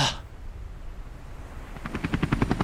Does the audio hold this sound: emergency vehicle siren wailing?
no